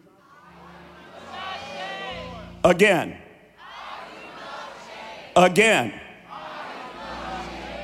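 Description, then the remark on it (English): A large crowd roars loud words in unison, twice, in big swelling bursts, each followed by a single man's voice calling out over a hall full of chatter and murmur. “Next four words as loud as you can scream them.”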